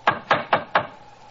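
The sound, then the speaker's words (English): Four firm knocks from a door knocker on a door that has no bell, evenly spaced, each a sharp thud with a short ring, followed by a quiet pause. “Let's try the knocker.”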